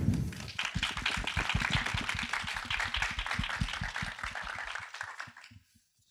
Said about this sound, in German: ich bitte einen großen Applaus für die Organisatoren des Café Kiew